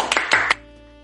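A brief smattering of applause: three sharp, bright handclaps in quick succession over about half a second, with a steady tone sustained beneath them, then the sound quickly dies away.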